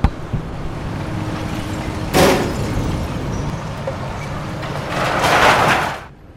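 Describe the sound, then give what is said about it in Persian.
A car crashes into a roadside fixture at the edge of a highway as the driver answers a phone: a sharp, loud impact cuts through a steady low engine rumble, followed a few seconds later by a longer, harsh grinding burst that fades abruptly. “درست وقتی که گوشی رو جواب دادم با آبر حاشیه بزرگ را تصادف کردم”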